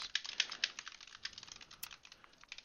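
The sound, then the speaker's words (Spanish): Rapid, irregular clicking of keys on a hard, loud-sounding computer keyboard, picked up by a good microphone, with crisp bright taps continuing steadily throughout and no voices. “Ok, entonces se escucha mi teclado no es porque lo tecleé fuerte.”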